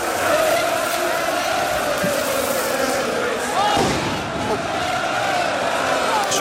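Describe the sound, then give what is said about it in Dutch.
A dense, roaring crowd of Ajax football supporters cheers and chants at the Johan Cruijff Arena, celebrating the league title as the trophy is shown. A steady wall of many voices with rising and falling shouts, loud throughout. “Dit is het eh, geluid van de supporters bij de Johan Cruijff Arena dus.”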